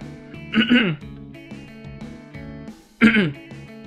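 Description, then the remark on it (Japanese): Two short, throaty coughs about two and a half seconds apart, fairly loud, from a speaker whose throat is not yet warmed up, rising above a steady background of voiced sound between them. “ちょっとね、まだね、喉のターンができてなくって、若干、あの、咳込んだりとかして申し訳ないです。”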